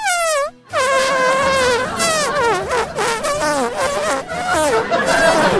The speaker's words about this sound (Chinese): 等她放完连环屁走出电梯之后，我才发现。